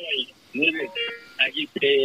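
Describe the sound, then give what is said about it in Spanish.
Tinny voices from a computer speaker during a live online call echo back on themselves because the computer's volume is too high, overlapping in short bursts with a hollow, doubled feedback quality; fairly loud. “Profe, tiene que bajar el, el, volumen al tele, a, la computadora. ya voy. para que no se oiga eco.”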